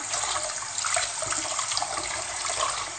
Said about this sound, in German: Umrührt Dings hier abgespült. Ne, ich bin gerade am Abspülen.